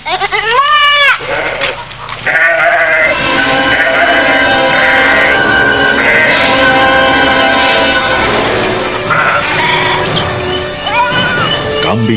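Several startled goats in a pen bleat loudly and insistently as they leap about wildly, their wavering cries overlapping in a noisy, agitated chorus that fills the whole stretch with barely a pause.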